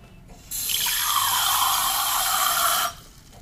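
For an ASMR recording, water is poured into a wine glass in a steady, bright rushing stream lasting about two and a half seconds, starting and stopping abruptly, with no one talking.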